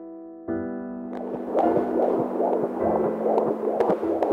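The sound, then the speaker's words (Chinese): A baby's heartbeat pulses in a steady, rapid rhythm of soft whooshing throbs, sounding over a continuous low hum with no voices. “那是小宝宝的心跳声啦。”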